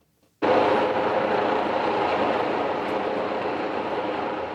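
A patrolling helicopter flies overhead at night in Hamburg, its loud, steady engine and rotor noise starting abruptly and holding a constant, broad rumble with no voices.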